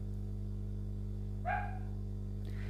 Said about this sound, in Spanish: Uy, ahí empezaron el perro, la puta madre que lo parió. A ver si deja de ladrar.